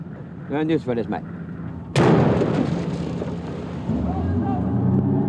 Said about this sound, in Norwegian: Det har blitt løsna mange skudd om bord på norske hvalskuter i år.